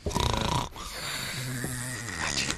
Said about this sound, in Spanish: ronquidos del hoy. Suenan como ronquido de perro viejo.